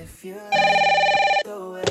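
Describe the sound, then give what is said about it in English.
A telephone rings once with a call from Australia, a loud, steady electronic trill lasting about a second, framed by softer tonal sounds just before and after. No one speaks. “Hello? Hi, Debbie. This is John. I'm calling from Australia.”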